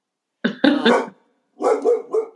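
A dog barks in two quick bursts, three sharp barks followed by a short pause and then two or three more, loud, with no one speaking.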